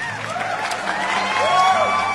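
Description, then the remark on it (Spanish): A crowd applauds and cheers steadily, with whistles and whoops rising over the clapping and no one speaking. “Ay, siempre me encantan esos aplausos.”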